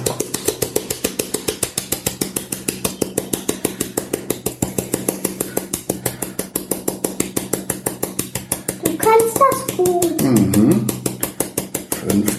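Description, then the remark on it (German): Rapid, steady tapping on a flour sieve held over a bowl while flour is sifted, a long run of quick light knocks in an even rhythm, with a brief voice rising over it near the end. “Genau, dran klopfen, dann, wenn das Mehl gesiebt ist, dann ist das schön locker und fein, dann sind auch keine Brösel drin oder sowas.”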